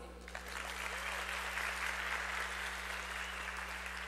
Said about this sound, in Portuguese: O grande insight do seu negócio elevou a expectativa, jogou para o público, arrasou, palmas para você.